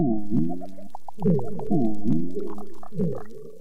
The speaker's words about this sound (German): Das sind Unterwassertöne von einem Korallenriff in Indonesien. Da ist zum Beispiel das Zähneklappern von einem Clownfisch und das Schnurren von einer Riffbarschart. Wer dieses geheimnisvolle Nebelhorngeräusch macht, das weiß bisher niemand.